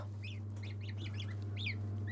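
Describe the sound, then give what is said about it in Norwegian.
Several three-day-old chicks peep in quick, overlapping high-pitched chirps, moderately loud, over a steady low mechanical hum, as they are given more food. “Nå kan vi gi dem noe mer mat i samme slengen mens vi holder på her. Ser i hvert fall at de spiser.”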